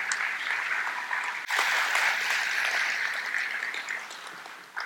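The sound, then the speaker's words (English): Steady crowd applause for an audience member who works in propulsion at SpaceX, a dense wash of many hands clapping at an even level with no voices, thinning slightly toward the end. “Give him some applause here.”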